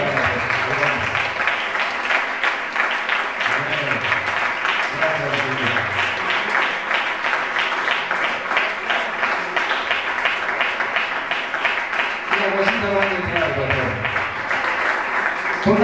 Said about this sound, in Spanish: Así que hermano, un fuerte aplauso al Señor.